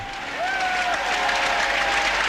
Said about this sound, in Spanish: Gran ovación para Juan Antonio.